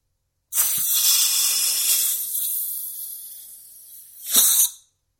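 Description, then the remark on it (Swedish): A long, steady hiss of pressurized spray from an inhaler lasting several seconds and slowly fading, then a second short, sharp burst of hissing air. No one speaks. “Kan ta, jag kan ta det första liksom bara, för det första pyset kan vara lite, Puffen, liksom.”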